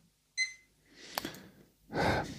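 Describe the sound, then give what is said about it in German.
A single short electronic beep from an alarm clock that beeps every hour sounds once, fairly loud, followed by breathy exhales and rustling noise. “Der Wecker, der piept hier jede Stunde.”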